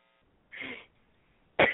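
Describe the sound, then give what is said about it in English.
A woman coughs twice, fairly loud: a raspy, drawn-out first cough, a brief quiet pause, then a sharper, harsher second cough. “She coughs it out.”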